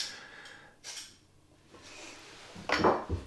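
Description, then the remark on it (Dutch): A small Opinel pocket knife being sharpened: a few separate metallic scraping strokes, the last one louder and harsher, with no talking. “Ik slijp hem even. Dat hoor je ook.”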